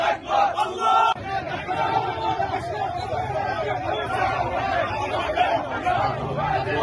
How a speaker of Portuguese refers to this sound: Aqui é Bagdá, Iraque. A multidão se dirigindo à embaixada dos Estados Unidos. Estão cantando: A América é o maior demônio.